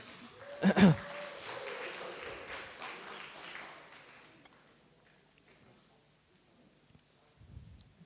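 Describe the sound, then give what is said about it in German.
An audience breaks into applause, opening with a sharp loud burst, then a steady patter of many hands that gradually thins and fades away, leaving near silence. “Und, ähm, kommt, nicht so schüchtern, gebt ihm einen dicken Applaus.”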